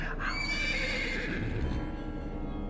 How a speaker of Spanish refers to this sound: Durante su ausencia, los caballos empezaron a temblar violentamente y a resoplar y a relinchar de terror.